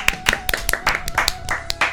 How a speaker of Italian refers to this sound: Un applauso. Un applauso ai nostri registi.